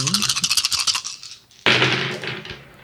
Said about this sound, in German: Okay, dann Thrause Dice. Ich würfel.